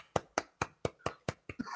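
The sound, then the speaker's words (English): A soft, polite golf clap: about seven light handclaps at a steady, even pace, quiet and crisp, with a faint rustle of background noise rising at the very end. “That's a little golf clap.”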